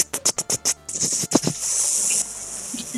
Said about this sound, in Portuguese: Bom, isso é o barulho do CD girando. Eu, eu, eu gosto dessa parte aí. É o barulho do CD girando no driver.